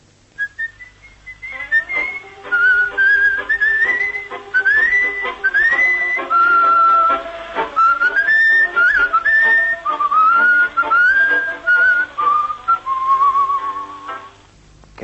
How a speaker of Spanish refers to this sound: y silbaba de una manera extraña, doblando la punta de la lengua, que los labios los dejaba para sonreír,